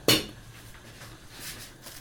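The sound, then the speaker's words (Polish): A single sharp clunk of a peeled parsley root, shaken of water, dropped into a metal pot of broth, with a brief metallic ring that fades quickly, followed by quiet kitchen background. “strząsnę z wody i również do garnka.”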